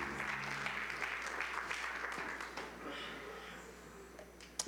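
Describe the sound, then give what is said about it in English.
A church audience claps together after a prayer, giving the Lord a hand clap of praise, in a dense, sustained burst of applause that fills the room, holding steady and then thinning out toward the end with a few final claps. “Give the Lord a hand clap of praise as you do.”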